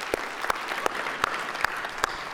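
An audience applauds the message that he rose on Easter Sunday, a dense wash of many hands clapping at once with a few sharper claps standing out at a steady pace, moderately loud.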